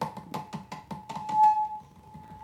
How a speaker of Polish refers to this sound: teraz jak dotykam mikrofonów to no, ja to słyszę, nie wiem czy Państwo będą to słyszeli.